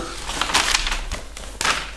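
Gift wrapping paper crinkles and tears in a few quick, rustling bursts as a present is unwrapped, fairly loud, with short pauses between the rips and no one talking.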